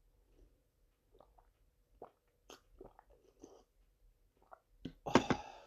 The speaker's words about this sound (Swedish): Och så här låter det när man häller in den i munnen.